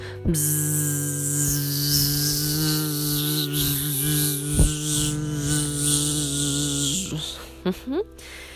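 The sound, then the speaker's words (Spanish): A person hums a steady, droning buzz imitating a bee in a bee-breathing exercise, with index fingers plugging the ears, held fairly loud for about eight seconds with slight wavers, ending with a few brief breathy sounds. “Le vamos a pedir que tapen con sus dedos índices sus oídos y empezar a hacer el sonido que hace la abeja”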